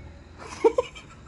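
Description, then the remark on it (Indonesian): Two quick, small kitten mews in succession, thin and high-pitched, over a quiet background with faint murmuring. “anak kucing sih”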